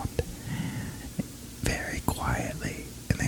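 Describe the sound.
A person whispers breathily right up against the microphone in an ASMR style, imitating the technique, with crisp sibilant hisses and sharp little mouth clicks popping through the soft, airy murmur.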